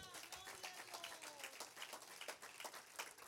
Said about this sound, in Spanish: Denle un aplauso a Jesucristo.